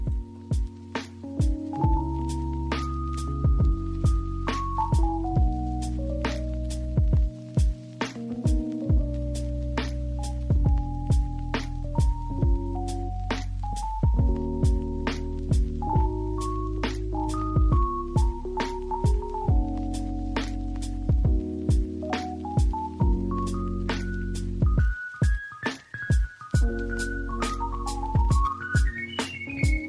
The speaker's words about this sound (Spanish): Eh, digo que vamos a escuchar el solo porque bueno, hay un solo de piano en la canción eh, que demuestra que el lo-fi también no tiene por qué ser ese estilo tan pausado, sino que también puede tener ciertos tintes de virtuosismo. Vamos a escucharlo.